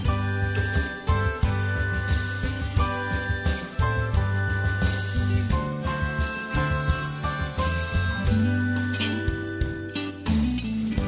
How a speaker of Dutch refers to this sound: de muziek was van … en … en u hoort nu nog een stuk van hun strijdlied